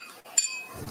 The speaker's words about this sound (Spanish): a mí me gustaría que brindáramos porque tenemos ah, acá A, grandes amigos por la libertad, grandes luchadores, salud. Saludcita.